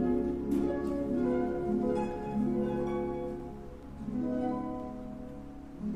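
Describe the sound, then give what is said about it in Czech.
Lush orchestral music plays on its own: the overture from the opera Rusalka. Sustained, swelling string-like chords shift gently over six seconds at a steady moderate volume, with no voices. “Hudba plná naděje, uh, poznali jste asi předehru uh, z Rusalky, měsíčku na nebi hlubokém naší českou verzi eh, eh, malé mořské eh, víly”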